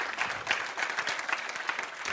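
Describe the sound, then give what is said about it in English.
An audience claps their hands during a sermon at a preacher's call, in a steady, dense burst of applause lasting a couple of seconds, the claps blending into a continuous crackling wash with a few sharper accents. “I'm waiting while somebody clap your hands.”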